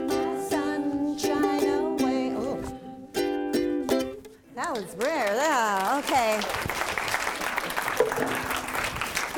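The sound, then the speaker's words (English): A sung melody with wavering vibrato gives way to a burst of audience applause, a dense, steady patter of many hands clapping that carries through to the end. “Thank you for applauding”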